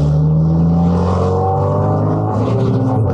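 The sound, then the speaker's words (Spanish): A motorcycle engine roars at high speed, loud, holding a continuous buzzing drone with slight shifts in pitch throughout, as the motorcycle is ridden fast along a road on the outskirts of a city. No voices present. “Su mente viajaba tan rápido como la motocicleta que conducía Marcos por las afueras de la ciudad rumbo a casa de Liz.”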